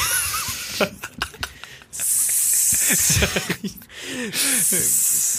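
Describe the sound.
A voice imitates a snake with long, sharp hissing bursts, broken by short gaps and vocal clicks and murmurs between the hisses.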